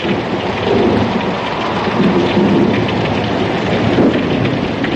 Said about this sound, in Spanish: La lluvia forma una catarata ensordecedora delante del horizonte hacia el que vamos como un grupo de insensatos.